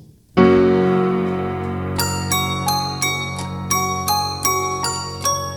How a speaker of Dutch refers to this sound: Het is groot en het is zwaar. Het is de grootste klok in de Domtoren. Hij heet de Salvator. Hij is ongeveer 2 meter en 27 centimeter doorsnee. Weegt 8227 kilo. En de stemming van de klok is vies. En dat klinkt zo.